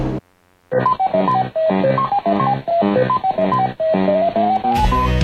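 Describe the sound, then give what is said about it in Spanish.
A retro arcade maze game jingle, from a game of eating dots in a maze while fleeing colored ghosts: bright, beeping electronic notes bounce through a quick looping melody, loud with no voices, ending in a rising run and a brief noisy burst. “Ahora en el British Council, cursos de inglés para los que se gastaron todas sus monedas comiendo puntos mientras recorrían un laberinto huyendo de fantasmas de colores.”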